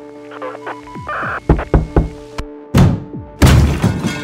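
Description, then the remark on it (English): The door of an amber-lit house in Singapore is thrown open to reveal Adrian Lim: several dull thuds and knocks, then two loud crashing bursts, over a low steady droning hum. “The door was thrown open to reveal a middle aged man known as Adrian Lim, Singapore's ritual murderer.”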